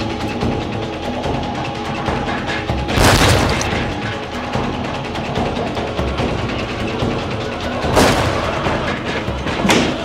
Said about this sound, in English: sounded like gunshots.